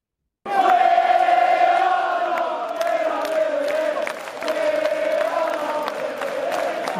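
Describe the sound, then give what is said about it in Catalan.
A large crowd of football fans at the Etihad chants "We are not really here" in unison, a loud sustained wall of voices holding a steady sung pitch, with shouts and claps poking through, starting abruptly and continuing throughout. “Aquesta serà una de les que sentim aquesta nit a l'Etiha.”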